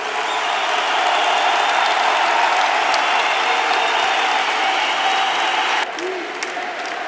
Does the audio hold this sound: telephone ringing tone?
no